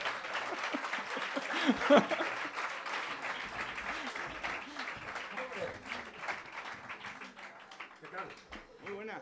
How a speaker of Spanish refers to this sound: Pues me alegro que le quieras porque está aquí tu paciente de esa terapia, Ernesto Sevilla, está en el Café La Palma y se va a subir un aplauso para Ernesto Sevilla, el paciente. Ernesto. Fuerte aplauso, por favor.